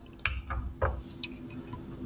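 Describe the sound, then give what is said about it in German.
A beer bottle, just taken from the fridge, is opened: a few sharp metallic clicks and clinks of glass, followed by a soft fizzing hiss. No one speaks. “ich mache mir das dann einfach jetzt mal auf”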